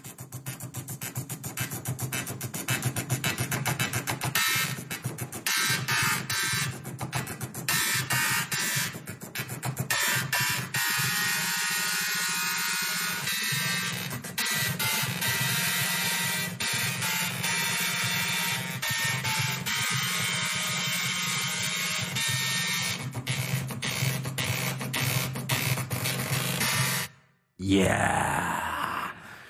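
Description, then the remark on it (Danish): A pop tune rendered entirely by two printers and four floppy drives: buzzing, grinding mechanical tones step through a melody over a steady droning hum, loud and continuous, ending in a brief silence. “udsat for øh, to printer og, og fire floppy-drev.”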